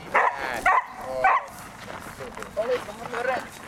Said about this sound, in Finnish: Se tulee koira. Kova ääni ja pieni paketti. Kyllä! Iso ego pienessä paketissa.